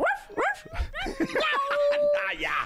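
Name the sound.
dogs barking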